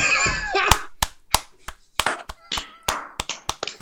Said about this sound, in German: Da kann man wieder klatschen.